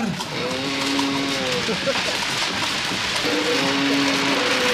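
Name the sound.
rain falling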